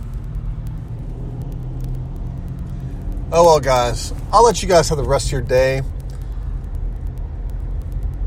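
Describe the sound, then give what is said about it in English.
Steady low road rumble from a car driving in rush hour traffic fills the whole clip, with a man speaking briefly over it in the middle before the engine drone carries on alone. “but of course, I'm in a rush hour and I'm not going to cycle through my phone to look at them.”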